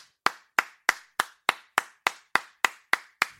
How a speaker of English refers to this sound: Someone clapped in the distance.